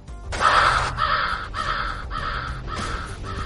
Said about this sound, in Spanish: estos son los pájaros de Hitchcock, no son los halcones